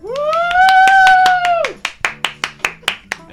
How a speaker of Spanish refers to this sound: Tú eres la máquina de aplausos, hermano.